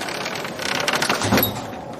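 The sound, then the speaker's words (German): A door bolt slides shut with a dry, rattling metallic scrape that builds over about a second and ends in a dull knock, heard alone with no voices. Set on the Greek island of Kors, about 400 years BC, with a storm outside. “leg den Riegel vor.”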